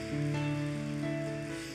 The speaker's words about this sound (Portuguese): Podemos dar uma salva de palmas para Jesus, o nosso Senhor, ele vive.